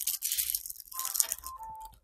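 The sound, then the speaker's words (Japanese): A chocolate wrapper being torn open and crinkled, a bright crackling rustle in bursts for about two seconds, with faint chewing crunches. No one speaks. “いや、でも、ちょっと待って、ちょっとあの、集中力切れて、切れてきたからチョコレート爆食いしていいごめん。爆食いするわ、チョコ、チョコレート。”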